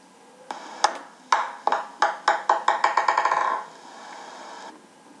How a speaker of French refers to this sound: Alors, avez-vous trouvé Bravo C'est une balle de tennis de table qui rebondit.